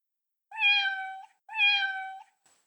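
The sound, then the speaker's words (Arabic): Two drawn-out, high-pitched meows in succession from a small kitten stuck at the top of a tree, each clear, with a brief pause between them and nothing else around. “وفي طريقهما للبحث عن الاولاد الاشقياء سمعا صوت مواء اتيا من اعلى الشجره”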